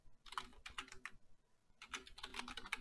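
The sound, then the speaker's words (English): Rapid bursts of crisp typing on a clacky computer keyboard, with a brief pause in the middle before another flurry of keystrokes; no one speaks. “Sorry, I got a little bit of a clacky keyboard.”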